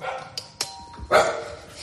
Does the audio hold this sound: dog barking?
yes